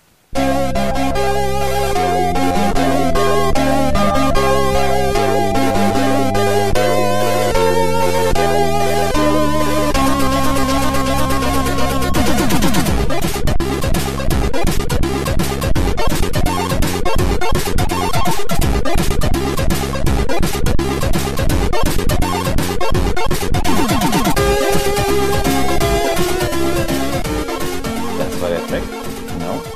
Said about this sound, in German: Spielen wir da ein. Wir ja, spielen jetzt hier mal spielen. kurz einen ein Track von dir ein, den du auf C64 gemacht hast.